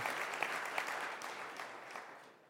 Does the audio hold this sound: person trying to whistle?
no